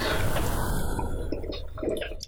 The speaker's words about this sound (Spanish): voy a tomar tantita agua espero no les moleste